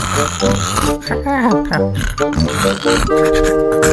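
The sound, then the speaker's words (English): A voice imitates Winnie snoring at night with loud, rumbling nasal snorts and drawn-out breaths repeating over several seconds. No words are spoken. “That night, Wilbur waited until he could hear Winnie snoring.”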